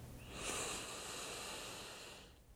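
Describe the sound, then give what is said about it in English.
A single long, forceful breath pushed out through the mouth, steady and airy for about two seconds before tapering off, with no talking. “Strong exhalation through the mouth as we go.”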